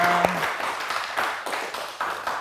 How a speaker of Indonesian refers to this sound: Oke saudara-saudara boleh tepuk tangan dulu dong untuk kita semua.